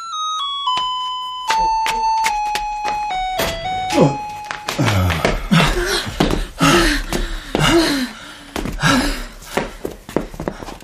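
An electronic intercom doorbell at a home, pressed by a visitor, plays a short descending sequence of clear tones, then gives way to the visitor's heavy panting and breathy sounds.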